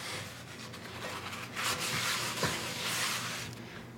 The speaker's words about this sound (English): I'm moving back to the stove, and I'm going to get some paper towels and wipe the skillet clean. There's just a little residual cream on the bottom.